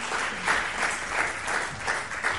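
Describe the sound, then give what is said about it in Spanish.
An audience applauds four women who accompany the speaker at a talk, a steady, dense wash of many hands clapping at an even, moderate loudness with small swells, with no voices heard. “Me acompañan cuatro hermosas damas, Un aplauso para ellas”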